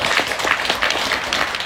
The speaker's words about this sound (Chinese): 来，掌声通过。